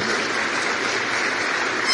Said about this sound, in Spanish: Así que tú eres un valiente, yo te felicito por eso. Date un aplauso a ti mismo por eso, yo te felicito de corazón.